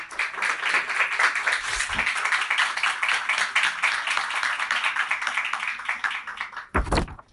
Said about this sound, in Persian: خانم ها آقایان تشویق شایسته بفرمایید